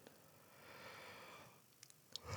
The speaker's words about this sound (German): Es ist bezeichnend, dass ich gähnen muss, wenn Final Fantasy 16 genannt wird.